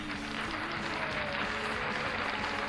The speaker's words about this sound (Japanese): えー、まあそんなわけでね自分で喋って嘘くさい拍手を入れてね今日もやっていこうと思っておりますよろしくお願いいたします。